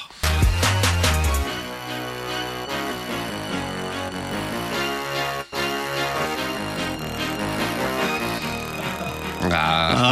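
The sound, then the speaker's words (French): A loud, dense trap track with booming sub-bass and sharp hi-hat clicks, carried by a bright, brassy synth-keyboard melody that plays steadily throughout, with no voices. “Je sais pas ce que c'est cet instrument. c'est un clavier à la 6 au Voilà, je sais pas. Euh, clavier cuivre.”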